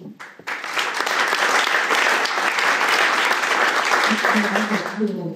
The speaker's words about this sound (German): Also, wie wäre es damit, wenn ihr mich hören könnt? Dann klatscht bitte mal in die Hände.